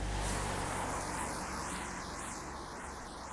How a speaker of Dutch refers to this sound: Ik geloof niet dat dit de meest handige weg was om te lopen met al die auto's. Nou, ik hoop dat je me kan blijven verstaan.